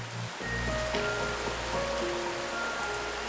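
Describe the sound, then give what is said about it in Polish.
Steady, dense rainfall pours down continuously over Dar es Salaam in a loud, hissing wash, with a faint tonal hum running underneath throughout. “Paradoksalnie, gdy nad Dar es Salaam pojawiają się w końcu chmury brzemienne deszczem, problem braku wody zamienia się w problem jej nadmiaru.”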